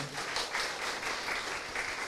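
An audience applauds steadily to welcome a guest, a homestay chain owner, onto a program, a dense, even patter of many hands clapping at moderate volume throughout, with no voices over it.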